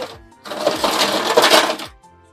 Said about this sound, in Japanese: おいしょ。とにかく氷を入れやなな。